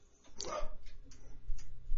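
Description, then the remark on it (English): A dog barks in the background, one sharp bark followed by a couple of fainter, shorter yelps over a low background hum, with no one talking. “Uh, apologies if you hear the dog in the background.”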